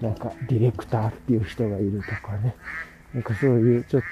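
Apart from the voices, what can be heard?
ducks quacking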